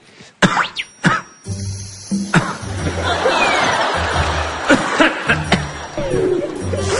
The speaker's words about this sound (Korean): 왜 하필 이럴 때 기침이 나왔지?